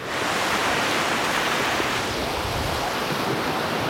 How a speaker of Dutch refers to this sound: En ik loop nu de zee in om te kijken of ik straks al iets zie licht geven.